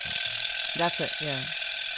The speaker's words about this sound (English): He says the sound of a boner is a percussion instrument called a vibraslap.